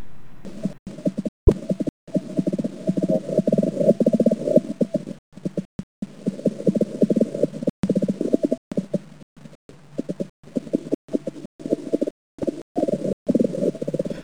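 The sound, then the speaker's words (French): Steady low drumming from a shield bug, Seirus luctuosus, which lives on forget-me-nots: a rapid train of soft percussive pulses merging into a rumbling buzz, running in long bursts broken by short pauses, with no voices. “Voici celle qui vit sur les myosotis et qui s'appelle Seirus luctuosus.”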